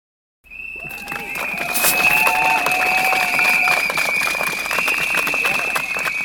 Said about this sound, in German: ganz schön laut. Letzten Dienstag an der Katholischen Universität in Eichstätt. Rund 100 Studierende hatten sich da versammelt, um zu protestieren.